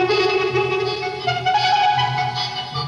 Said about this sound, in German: Heute geht es um ein ganz besonderes Instrument, das hier in Berlin erfunden wurde, das Trautonium. Ja, Trautonium heißt das Ding. Wie klingt das? Den Vögelsound haben wir ja schon gehört, aber das Instrument kann noch mehr. Das hier zum Beispiel.